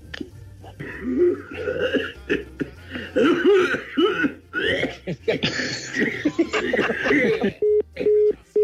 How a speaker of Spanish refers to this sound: A ver, está, sonando el teléfono, ¿qué onda? ¿Tenemos una llamada qué pex?